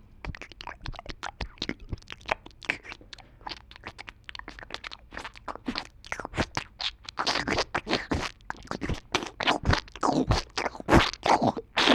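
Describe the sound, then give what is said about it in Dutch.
Scratchy rubbing and crunching against a covered microphone recording the penis moving in the vagina of an older woman during intercourse: rapid, irregular strokes that grow louder and busier toward the end, with no talking. “Eh, wat dan zeg maar de penis maakt in de vagina.”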